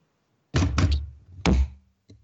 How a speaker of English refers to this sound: That was a literal mic. Did you just, did you, ah, oh, I thought you were thumping the desk. You dropped the mic.